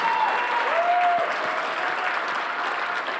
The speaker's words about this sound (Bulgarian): О, ако ръкопляскаш, ръкопляскай, като че наистина го вярваш.